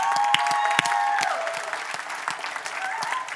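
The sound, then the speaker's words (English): A church audience breaks into a round of applause for its campaign team, dense steady clapping with a few sharper claps standing out and a faint sustained tone fading early on. “Let's give them a round of applause and thank God for them.”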